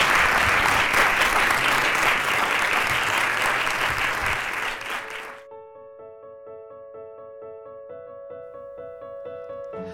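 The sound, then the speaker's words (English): A crowd claps loudly and steadily for about five seconds for two guests, then the applause cuts off and a soft, sustained musical tone with steady harmonics takes over. “Round of applause for those guys.”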